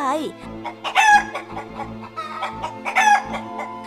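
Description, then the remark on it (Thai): A mother hen squawks loudly and agitatedly after a cat snatched one of her chicks in the yard in front of a house: a string of harsh, repeated cries, with two shrill peaks, one near the start and another toward the end. “แม่ไก่ได้ร้องเสียงดังลั่น จนเจ้าสุนัขที่อยู่หลังบ้านวิ่งออกมาดู”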